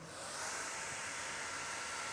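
A hair dryer whirs on and keeps blowing with a steady, breathy roar, rising quickly at the start and then holding an even hiss with no voices.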